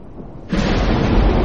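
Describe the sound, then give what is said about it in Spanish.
A loud clap of thunder bursts in suddenly after a moment of quiet, with a flash of lightning, then rolls on as a heavy, sustained rumble. No voices. “Un relámpago ilumina la sala.”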